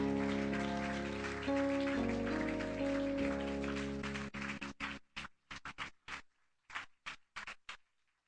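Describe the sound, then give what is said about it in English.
An audience claps together in praise during a worship service over sustained musical tones, a dense wash of hand claps that thins out into a dozen or so separate, irregular claps before fading. “If you want to clap your hands, you can. Let's praise him together.”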